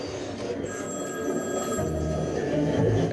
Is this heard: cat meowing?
no